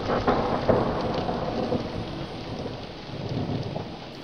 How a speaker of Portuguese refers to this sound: Nesse dia tava chovendo mas não qualquer chuvinha, não.